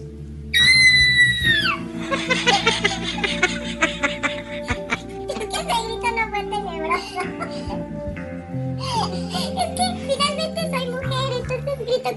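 A child gives a spooky scream to scare an audience, letting out a high, wavering wail that slides down in pitch, followed by more drawn-out eerie vocal sounds against a busy background, loud.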